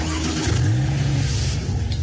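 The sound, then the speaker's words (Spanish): A modern car's engine revs and accelerates, its low growl rising in pitch over a couple of seconds, loud, with no voices present. “Probar la velocidad de los autos más modernos.”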